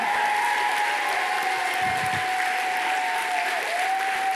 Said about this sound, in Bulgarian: ръкопляскането ви е болно от коронавирус. Затова пандемията се връща сега, септември месец. Заради пляскане като вашето. Дайте една бустерна доза пляскане, за да ви мине. Come on!